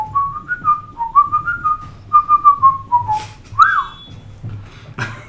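A person whistles a melody up close, a clear tune of short and held notes rising and falling, with a faint low hum or background noise underneath and no talking.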